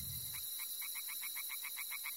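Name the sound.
tree frogs croaking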